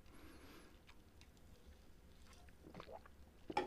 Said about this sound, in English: Take a quick sip here.